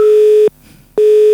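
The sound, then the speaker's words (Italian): A telephone busy tone after a dropped call: a steady, mid-pitched beep sounds for half a second, cuts to silence for half a second, then returns, loud and evenly paced with no voices. “È caduta la linea, ok.”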